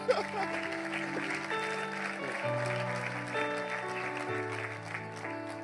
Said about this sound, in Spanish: Quantos dizem amém? E me ajuda com uma salva de palmas, por favor.